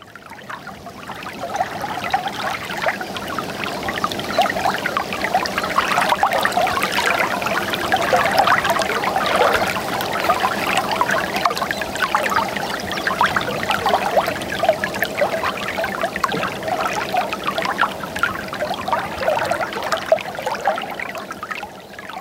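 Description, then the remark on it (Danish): A small stream near the source of the Gudenå river in central Jutland, Denmark, flows and trickles steadily, a continuous bubbling wash of water with no voices, holding an even level for the whole stretch. “Vi er i dag øh, taget øh, ind i det centrale Midtjylland, ind til Gudenåens udspring, eller i hvert fald et lille”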